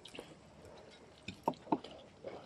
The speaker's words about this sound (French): Et ah, je fais un petit peu l'ambiance sonore parce qu'on est en train de manger.